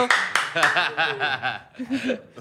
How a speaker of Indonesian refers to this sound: Kencengan gue loh tepuk tangan.